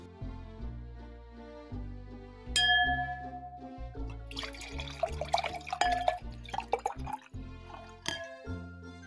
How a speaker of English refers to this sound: Well, the sounds of sherry being poured lets us know it's time to head back to the Christmas kitchen for Mrs. Claus's tasty treats for your holiday fun times.